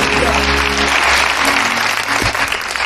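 crowd, applause

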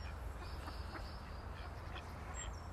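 bird, mallard ducks quacking

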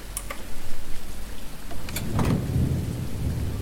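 nature, thunder

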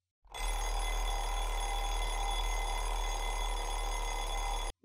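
household object, alarm clock ringing

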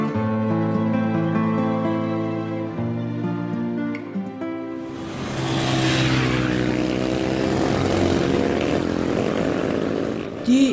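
vehicle, motorcycle engine

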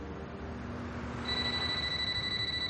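household object, telephone ringing

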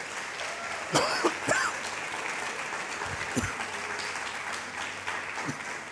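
crowd, audience applauding

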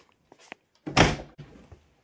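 household object, door being shut

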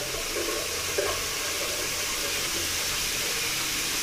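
household object, running water

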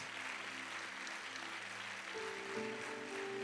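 crowd, church audience applauding

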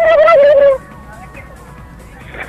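bird, rooster crowing

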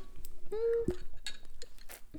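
household object, glasses clinking

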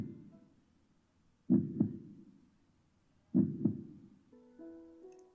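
sound effect, heartbeat sound effect

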